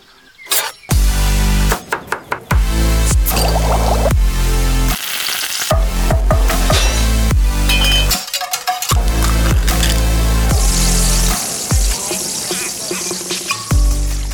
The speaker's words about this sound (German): Ah, es gibt doch nichts Schöneres als eine schöne große Pfanne Paella. Scampis, Muscheln.